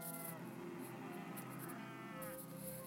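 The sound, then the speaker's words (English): Cows moo continuously in long, overlapping calls, a steady chorus of lowing from several animals filling the whole stretch without any talking, on a Wednesday night in November in Mootown. “You can hear them in the background.”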